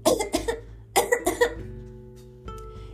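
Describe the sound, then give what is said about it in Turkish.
Two pairs of harsh, forceful coughs burst out, each pair quick and strained and deliberately forced louder, followed by a lingering tonal hum and a faint thump near the end. “Küçük prens yine de üzülsün diye kendini zorlayıp daha kuvvetli öksürdü.”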